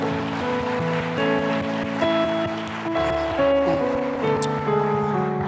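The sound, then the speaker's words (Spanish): Loud, steady applause from a church audience for several seconds, a dense rush of clapping over sustained keyboard chords that shift every second or so. “Ahora vamos a levantar un fuerte aplauso.”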